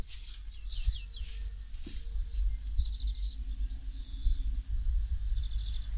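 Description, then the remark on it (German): Birds chirp and tweet outdoors, heard from a balcony, fairly soft, with repeated high calls scattered throughout over a steady low rumble of background noise. “die Vögel zwitschern”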